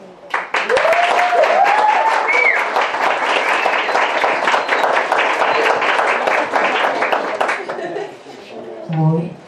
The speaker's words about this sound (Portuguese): Então, pessoal, vamos aí é, receber com aplauso também e ouvir bastante, a, com bastante atenção a fala dela